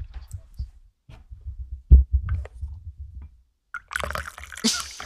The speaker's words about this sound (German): Wenn es hörbar ist, ich schenke mir gerade Tee ein.